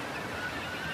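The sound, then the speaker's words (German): Seagulls call over a steady wash of ocean surf, their cries blending into the continuous roar of waves for about a second with no voices present. “Überall um dich herum sind die Geräusche des Meeres und der Möwen.”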